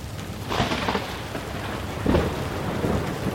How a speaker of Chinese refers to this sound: 黑色的大雨突然从天而降，又突然停止